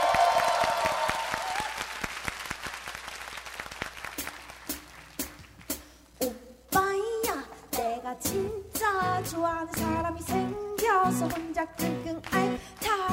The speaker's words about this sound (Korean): 박수로 맞이해주세요!